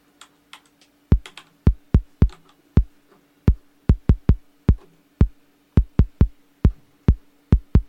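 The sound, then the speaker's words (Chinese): An original Roland TR-808 drum machine's iconic kick drum hitting about seventeen times in a loose, uneven pattern, each a deep punchy boom with a quick decay, over a faint steady hum and a few soft clicks at the start. “首先我们听到它的是它那个就是标志性的那个 kick。”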